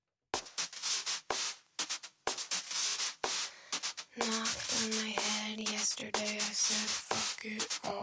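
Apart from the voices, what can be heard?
song playing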